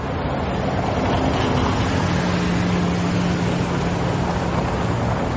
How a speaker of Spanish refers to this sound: De día, coches y autobuses circulan por una amplia avenida. Moscú, marzo 1987.